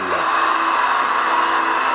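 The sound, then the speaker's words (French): A large wrestling crowd cheers and yells for Hardy and Elias in a loud, continuous roar, with scattered shouts and whoops rising above the dense wash of voices. “Bande de désobéissants, mais qu'est-ce qu'ils font”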